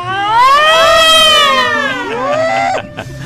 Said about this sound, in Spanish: las sirenas, Roger, las sirenas